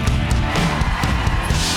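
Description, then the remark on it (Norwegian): A live audience at the show Allsang på grensen applauds warmly and steadily to welcome Ari Behn, a dense wash of clapping with some crowd cheering mixed in, filling the whole moment without any speech. “Gi en varm applaus til Ari Behn!”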